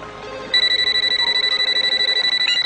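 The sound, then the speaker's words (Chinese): A telephone rings with a fast, warbling electronic trill, a steady high-pitched buzz pulsing rapidly and loudly for about two seconds after a brief moment of quiet background. “我叫你爸接电话。”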